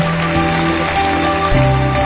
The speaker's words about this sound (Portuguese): Uma salva de palmas para Deus. Glorifica o Senhor.